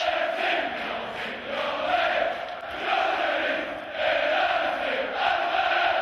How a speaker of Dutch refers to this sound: En op die uitmatchen die nog eens allemaal samen, allemaal samen voor de kleuren tonen waarom dat we er staan. En ja, je, je, je ze missen op weg naar dat ene punt voor dat doel. Je club, supporteren, eh, zingen voor de winst.